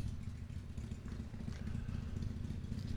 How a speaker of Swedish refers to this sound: Det var en liten motorcykel som körde förbi här. Ja, Vi sitter utomhus. Ja, det puttrar puttra förbi.